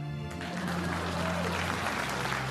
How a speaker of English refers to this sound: Please clap.